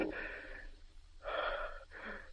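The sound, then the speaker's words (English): Labored breathing of a man: three heavy, wheezy breaths in quick succession, each a rough, rasping rush of air with short pauses between, fairly quiet, with no talking. “See his labored breathing subsides, and feel for yourself how his pulse beat lowers.”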